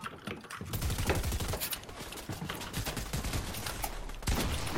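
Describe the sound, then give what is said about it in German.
Rapid video game gunfire sprays in dense, overlapping bursts, a steady crackle of sharp shots that keeps going almost without pause throughout, loud and busy with no talking. “Jungs, jetzt sprayt mal nicht die ganze Zeit von hinten drauf.”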